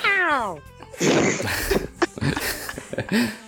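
The neighbour's cat gives one clear, falling meow right at the start, followed by a few seconds of muffled rustling, bumps and faint vocal noises.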